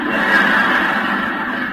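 A horse whinnies in one loud, drawn-out neigh that holds steady for nearly two seconds, with no voices over it.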